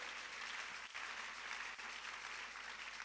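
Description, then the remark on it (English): A crowd claps steadily for the Lord in a dense, even wash of applause that holds at a constant level for a few seconds, with no voices standing out. “Oh, put your hands together for the Lord.”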